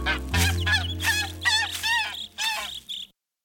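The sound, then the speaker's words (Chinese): A golden goose honks in a quick series of about seven nasal, bright calls, fairly loud over a low steady hum, then stops abruptly. “那我们走吧，金鹅。”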